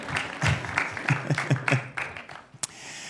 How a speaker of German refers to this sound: Guck, die alle zusammen hier klatschen.